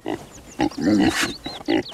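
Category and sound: animal, pig grunting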